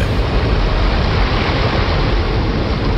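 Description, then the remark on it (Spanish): A loud, continuous roar of river water bursting through a dike into a small village during heavy rain, with a deep rumbling low end, steady and unbroken throughout, like a powerful flood surging. “Y mientras lo hacía, el niño escuchó un fuerte estruendo. El agua del río irrumpió a través del dique hacia la pequeña villa.”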